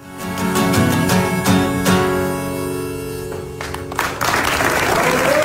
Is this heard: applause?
yes